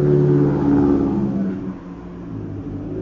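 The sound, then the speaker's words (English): A Toyota Corolla engine revs loudly, a droning low growl with steady tones that slide downward after the first second and a half, then a rougher, slightly quieter rumble continues to the end. “A fucking Toyota Corolla.”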